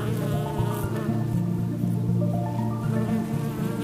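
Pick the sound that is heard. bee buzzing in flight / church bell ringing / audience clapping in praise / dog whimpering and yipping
bee buzzing in flight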